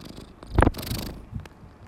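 A cat purrs, a steady low rumbling pulse with a few brief, breathy swells, and nobody speaks.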